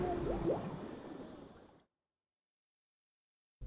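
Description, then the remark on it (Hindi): Bubbles gurgle slowly up through water for under two seconds as a child's face is held under water, a wet burbling with a few rising blips, fading out into silence before a short low thump at the very end. “इस बार बच्चे का मुंह पानी में डालकर उसके हाथ पैर पकड़ लिए धीरे धीरे पानी में ऊपर की तरफ आते बुलबुले”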